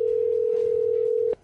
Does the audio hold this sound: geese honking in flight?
no